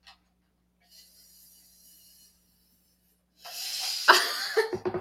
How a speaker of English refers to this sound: Well, I'm drinking my apple juice. some- Why? So you can make a slurping sound? We're gonna have some ASMR in there.